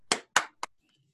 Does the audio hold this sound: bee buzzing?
no